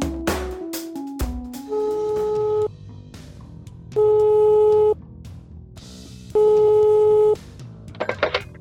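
Telephone call tones from a phone call made in the morning: a short run of stepped dialing beeps at shifting pitches, then three loud, steady ringback tones, each about a second long, separated by quiet pauses.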